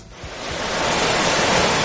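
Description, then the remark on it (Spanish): Broad, steady rush of sea waves breaking on a shore, swelling in over the first moments and then holding as a loud, continuous wash with no voices. “Salimos del baño y nos vamos a darnos un chapuzón.”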